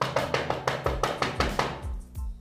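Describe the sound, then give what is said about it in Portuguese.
A rapid, steady run of about ten sharp knocks on a door, each with a dull thud, followed by a few softer, slower raps. No one speaks. “E nesse momento, eles começaram a bater na porta. Bateram na porta de novo.”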